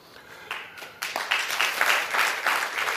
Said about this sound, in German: Dann kann man auch klatschen.